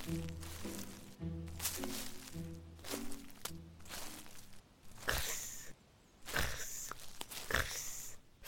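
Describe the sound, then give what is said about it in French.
A short plucked melody plays first, then footsteps crunch through dry leaves in a forest: a few slow, uneven steps, fairly loud, with no voices. “À petits pas biscuités, le bonhomme de pain d'épices poursuit sa route dans la forêt.”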